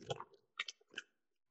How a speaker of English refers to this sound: Uh, Blue Birds. It's a New Zealand brand. It's delicious. They make our uh, potato crisps. I am. Yeah. Boom. Oh, I got the crunch.